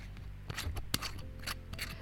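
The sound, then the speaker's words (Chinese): A glass bottle of Taiwanese Indigenous millet liquor from Taitung being opened: a string of sharp clicks and scraping twists, with one louder crack near the middle, over a low steady hum and no talking. “是一个玻璃瓶装的感觉。”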